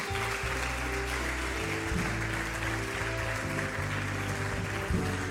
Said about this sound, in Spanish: Dale un aplauso al rey, tomen asiento.